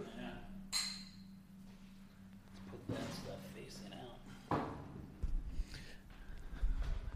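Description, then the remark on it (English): Glasses of freshly poured Last Shot Distillery bourbon whiskey from Skaneateles, small batch, single barrel, 42% alcohol, clink together in a toast, one bright ringing chime early on, followed by softer knocks and handling sounds while voices murmur underneath. “We'll leave this in the podcast, but we just poured.”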